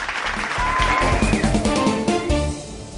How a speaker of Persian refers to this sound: اما جایزه بعدی یعنی ماله ای با انتخاب هیئت جوری ایستگاه پنجشنبه بعد از بررسی تمامی مطبوعات یه هفته گذشته تعلق میگیره به روزنامه افکار تشویق بفرمایید